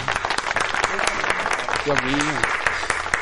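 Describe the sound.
Steady applause from many hands, a dense crackling patter that runs the whole time, with a voice calling out briefly over the clapping partway through.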